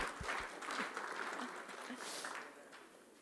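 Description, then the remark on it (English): An audience applauding: a dense, steady patter of many hands clapping at once, holding fairly even and soft throughout, with no talking over it. “Go on, you can applaud.”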